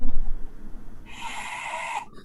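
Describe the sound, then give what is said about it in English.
A single drawn-out, hissing throat breath, like a soft ocean-wave rasp, lasting about a second, following a brief low rumble and ending abruptly: an ujjayi (warrior breath) yoga breathing demonstration, made through the mouth by slightly lifting the soft palate. “But if you can do that, you can make ujjayi breathing, the, the warrior breath, because you see my tongue is out.”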